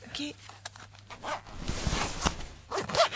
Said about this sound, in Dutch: kan ik mijn schoen weer aantrekken? Je kunt je schoen aantrekken.